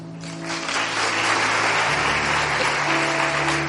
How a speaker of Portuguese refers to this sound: Um aplausinho aí.